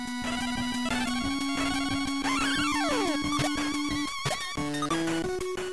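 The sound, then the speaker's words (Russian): Bright chiptune music from a gameplay recording, with fast arpeggios and a steady melody, repeatedly cut into by electronic game effects as the player hits enemies or collects diamonds, the effects taking one of the two square-wave channels from the arpeggio; a rising-and-falling sweep and quick blips, loud, with no voices. “Если прислушаться к записи геймплея, то отчетливо слышно, как звуки игры перебивают этот самый космический флоу.”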